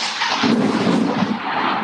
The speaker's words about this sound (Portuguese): Meu, o trovão aqui está pesado.